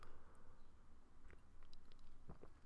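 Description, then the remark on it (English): Quiet sipping of hot coffee: a few soft slurps and small mouth noises over a low background hiss, with the clearest slurps near the end. “But let me uh, let me just get a, a uh, sip of this because uh, I need it.”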